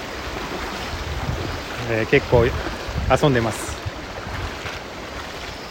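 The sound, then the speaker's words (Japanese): Shallow river water in a river gorge rushes and splashes steadily as someone wades into the shallows to cool off around late morning, while a man speaks briefly over the constant watery hiss. “今この水の中の浅瀬をジャブジャブ川に入りながら涼みながら川の中にいますちょっと水の音が聞こえますかね”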